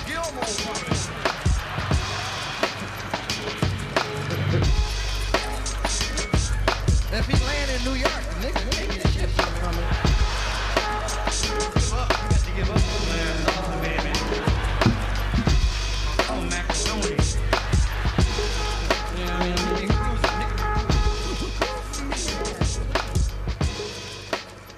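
A sampled funk drum break drives a dense, loud track, with punchy kicks and snares in a steady looping groove over heavy bass and layered instruments, running continuously throughout.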